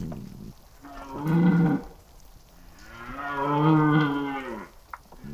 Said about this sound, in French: Je me suis arrêté évidemment sur... sur la lalie du Cerf de Courbet enregistré euh, le brame du cerf sur, euh, sur deux saisons.